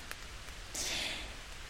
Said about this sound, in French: Et là, il pleut un petit peu, peut-être que ça va s'entendre. Il y a des petits blocs blocs qui tombent sur la tente.